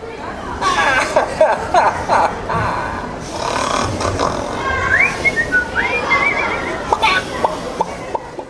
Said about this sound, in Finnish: Monitaitoinen robotti kuorsaa, nauraa ja viheltelee lasten ohjailemana Kopernikuksen tieteellisessä museossa Varsovassa.